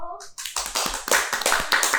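A short spoken phrase gives way to a burst of hands clapping to thank invited guests at the end of a programme, quick and irregular, steady and fairly loud for about a second and a half like brief applause.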